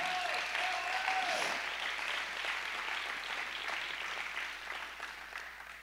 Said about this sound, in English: Oh, glory. Can we give the Lord a hand clap right now?